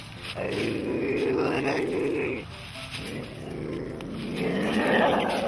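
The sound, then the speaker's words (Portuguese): An ocelot gives loud, rough, drawn-out calls: one long harsh cry, a brief pause, then a second sustained call that swells louder toward the end. “Esse é o som feito pela Jaguatirica.”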